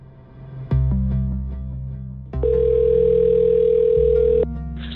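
A steady electronic ringing tone of an outgoing telephone call hums continuously, shifting pitch at a couple of points as the call connects, loud with no voices.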